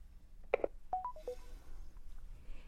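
A phone call is hung up: a quick click, then a few short electronic beeps stepping downward in pitch, fairly quiet, with no one talking.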